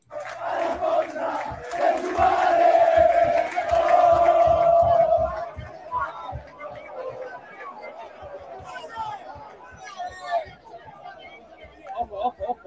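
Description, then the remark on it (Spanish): A stadium crowd of Sporting Cristal football fans chants together in support of Núñez in a loud, sustained roar, with a rhythmic tone holding steady for several seconds before fading into scattered crowd noise and chatter. “La hinchada está con Nunes.”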